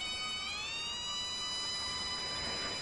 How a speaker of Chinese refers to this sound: 走着走着，伴随着一阵风声，就听到远处传来了一阵唢呐声。